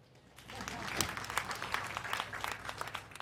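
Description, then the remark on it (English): A crowd breaks into applause for a benefactor who paid school fees, uniforms and pocket money. It is a dense patter of many hands clapping steadily for a few seconds, fairly loud and sustained, with bright, crackling bursts throughout. “Clap for him.”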